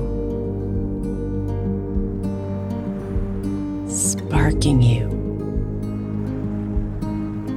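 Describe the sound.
A steady wash of ocean surf rolls beneath a calm speaking voice, with one brief louder surge of water swelling near the middle before settling back into the soft background roar.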